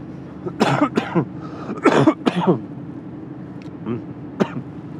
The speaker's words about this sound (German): Und wie ihr hört, die scheiß Husterei immer noch nicht los.